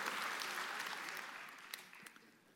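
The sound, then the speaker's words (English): A church audience claps during a sermon, a dense, continuous wash of applause that gradually fades, with a few sharper individual claps standing out near the end. “Somebody clap in this room.”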